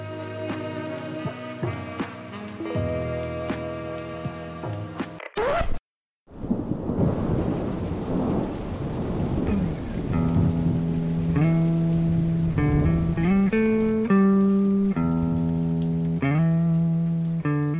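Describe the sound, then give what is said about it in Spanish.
Gentle melodic music cuts off abruptly, then a loud crack of thunder breaks in with steady hissing rain, and soft music gradually returns over the continuing storm. “Pero a veces un día soleado se transforma en un día de tormenta.”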